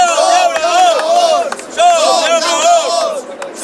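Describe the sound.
A large crowd of about 250 protesting farmers at the port of Castellón, Spain, loudly chants the slogan "Somos Labradores" in unison while burning tires, voices rising and falling together in repeated rhythmic phrases. The chanting stays dense and forceful throughout.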